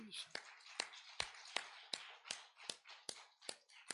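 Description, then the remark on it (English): An audience claps hands together in praise in a steady, even rhythm, about ten sharp claps in four seconds, with a diffuse wash of crowd noise filling the gaps between them. “Give him a hand clap of praise.”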